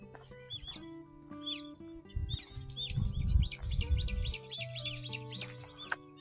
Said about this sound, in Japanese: あ、桜ももう、桜のある公園に来たんですが、あの、もう葉っぱ出てますね。葉桜。鳥の声聞こえますかね。あ、すごい。桜の木に止まってます。鳥、鳥たちが。何の鳥だろう、これ。